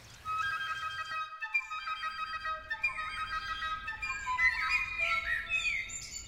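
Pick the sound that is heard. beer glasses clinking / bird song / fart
bird song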